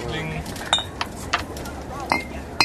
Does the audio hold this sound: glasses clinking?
yes